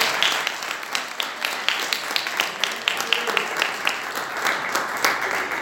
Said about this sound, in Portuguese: Você pode dar um louvor de palmas ao Senhor